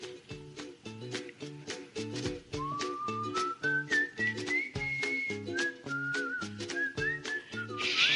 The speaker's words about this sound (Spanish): Esta nueva sección que también nos la silban. Tenemos un silbón aquí también, ¿no?